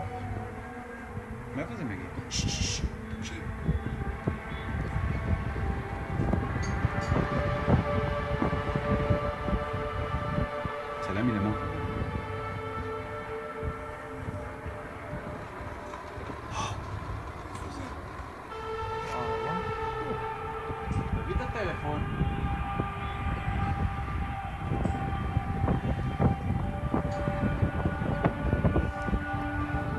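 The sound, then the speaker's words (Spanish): A loud, eerie trumpet-like blare from the sky, one of the acoustic phenomena people around the world have reported since 2011: long, sustained brassy tones that swell and slide between pitches over a steady low rumble, continuing without a break. “Seit 2011 berichten Menschen in der Welt über akustische Phänomene, Geräusche, die angeblich aus dem Himmel kommen.”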